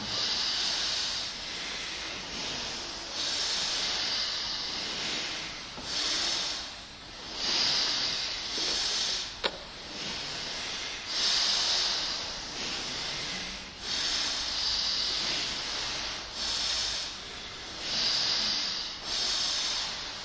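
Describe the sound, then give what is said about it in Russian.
Long, deep hissing breaths repeat in a steady rhythm, each airy exhale swelling and easing every couple of seconds. Fairly soft, with no talking. “Long, deep and hissing breath.”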